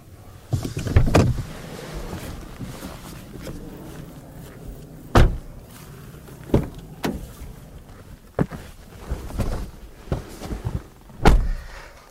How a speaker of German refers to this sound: Schade, dass die Türen ein bisschen blechern klingen.